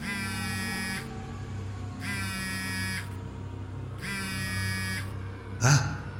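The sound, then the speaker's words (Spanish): Steve's mobile phone vibrates at the entrance of an office building in three even, one-second buzzing pulses separated by short pauses, followed by a brief knock as the buzzing stops. “En ese preciso momento su teléfono vibró.”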